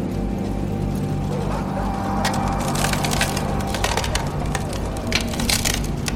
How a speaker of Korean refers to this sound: 쫑! 얼음이 갈라지는 소리에 남자의 양쪽 귀가 바짝 섰다.